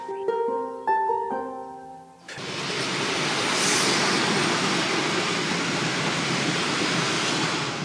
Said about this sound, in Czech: tak nám tady do Třeboně hezky přijíždí vláček.